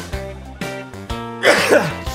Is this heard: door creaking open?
no